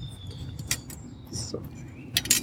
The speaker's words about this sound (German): So, ich tu mal die Karkassen hier hin.